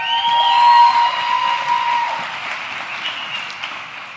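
A crowd applauds steadily for about four seconds, dense clapping loudest at the start and easing slightly, with a faint high tonal whine running through it and no one speaking.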